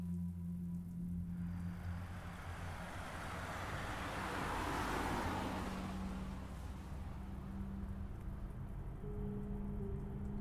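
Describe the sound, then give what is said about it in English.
Steady rain patters down continuously, swelling slightly in the middle, over a low droning engine hum. No one speaks. “The evening was humid after the rain shower”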